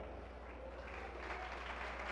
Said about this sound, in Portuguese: Isso, vem, vem, vamos aplaudir mais ao nome do Senhor.